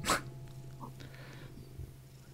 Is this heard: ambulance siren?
no